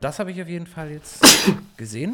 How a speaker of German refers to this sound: Entschuldigung. Gesundheit.